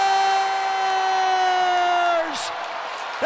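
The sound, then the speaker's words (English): Boston Bruins hockey fans in Raleigh cheering after David Pastrnak scores his 50th goal of the season: a loud, continuous crowd roar with a steady, sustained tone ringing over it that breaks off near the end before the noise swells again. “Listen to the Bruins fans celebrating here in Raleigh.”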